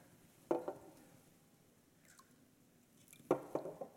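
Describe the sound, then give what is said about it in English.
Water pours into a glass in two short, splashy bursts, one early and a louder one near the end, with a quiet pause between them and no talking. “Man, you all have a lot of confidence in my pouring skills here.”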